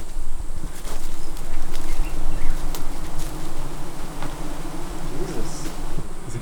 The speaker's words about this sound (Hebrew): טוב, פה חייתי את רוב חיי, זו המערה. יש בה הרבה זבובים בקיץ, הם לא עושים כלום.